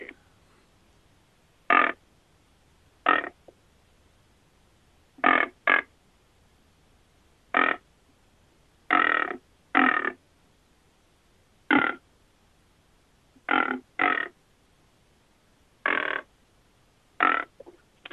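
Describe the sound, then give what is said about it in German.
About fourteen short, muffled animal greeting calls, some coming in quick pairs, spaced irregularly. Each is a brief, soft, low-pitched croaking grunt, with quiet pauses between and no talking. “Das sind so ganz verhaltene Laute, bitte hier also nicht mit der Tür ins Haus fallen äh, einfach ganz normale, verhaltene, relativ tief eingesetzte Grußlaute.”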